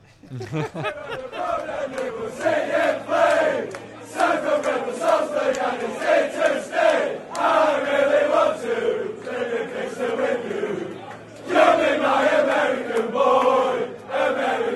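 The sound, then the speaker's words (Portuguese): A crowd of Leeds football fans sings a stadium chant for the American player Brandon Aronson, a steady melodic mass of voices carrying a tune for about fifteen seconds, loud and continuous with a brief dip near the end. “Como ele é americano, eles adaptaram aqui a ….”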